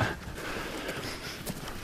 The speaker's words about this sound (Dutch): Ah ja, ik had dat juist luider gezet om het gegraas van de schapen te kunnen horen.